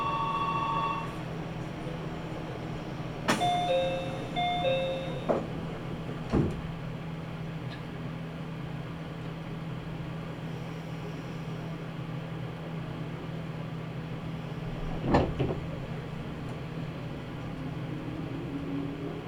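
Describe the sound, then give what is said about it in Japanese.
A short electronic door chime of a few stepped tones on a Japanese local train bound toward Kariya and Takahama, followed by the thump of the sliding doors closing before departure, over a steady low engine hum, with another bump later. “ドアを閉めます。”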